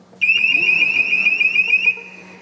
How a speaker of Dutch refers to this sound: Het alarm dat afgaat ja. zonder dat er iets passeert. Ja, dat is wel vreemd. Dus, eh, soms zitten wij gewoon aan de balie en dan hoor je ineens zo... Eh,